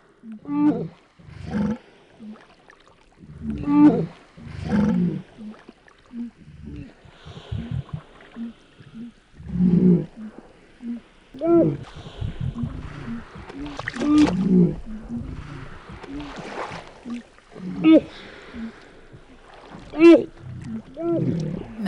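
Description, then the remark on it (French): Atlantic walrus mothers and pups calling back and forth, a series of loud, harmonic bellowing and bleating cries, roughly eight bursts over twenty seconds with brief gaps, against a low rumbling background. “de mères et de jeunes chez le morse atlantique.”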